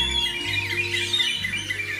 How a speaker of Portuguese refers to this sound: Na cidade pequenina, por nome de Passaredo, mil pássaros pelos céus voam por sobre o arvoredo. Piam, cantam, assoviam, gorjeiam, chiam, chalreiam, modulam, trinam, tintilam, suspiram, gritam, palreiam.